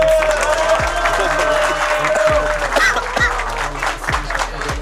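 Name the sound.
crowd applauding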